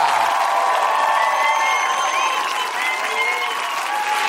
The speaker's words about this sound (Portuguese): Aplaudam o grande cavalheiro da TV brasileira, nosso amado Tarcísio Meira.